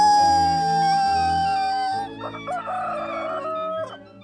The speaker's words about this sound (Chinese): 大家都很喜欢公鸡优美的声响。